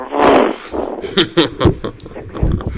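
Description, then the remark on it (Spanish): A person imitates a lion roaring while mating: one long, raspy growl followed by a series of short, rhythmic grunting bursts, loud and throaty. “Un león agarraba un, un búfalo. ¿En Serengeti? sí, el ¿Y quién estaba delante y quién estaba detrás? Estaba apareándose y hacía”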